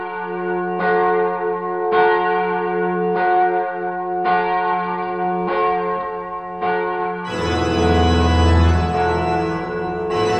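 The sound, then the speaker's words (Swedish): Church bells ring in a steady peal, one resonant strike about every second, then more bells join and build into a dense, loud clangor. No one speaks. “Så att jag säger så här, låt kyrkklockorna ringa eller som Dragan skulle ha sagt, kick it!”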